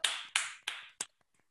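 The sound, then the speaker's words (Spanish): A brief burst of hand clapping: four sharp, bright claps in a fairly even rhythm, each ringing out briefly, the last one softer before the sound falls silent. No voices. “Chicas, un aplauso para Concha Podcast que acaba de conseguir en este episodio.”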